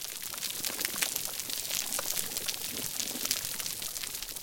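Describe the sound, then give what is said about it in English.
Dense, continuous crackling from hundreds of snapping shrimp on a healthy coral reef in the Philippines, countless tiny sharp snaps like miniature sonic booms, steady and fizzing like frying fat, heard underwater with no voices. “So you hear hundreds of snapping shrimp communicating or possibly hunting, which are producing these uh, miniature sonic booms heard throughout the reef.”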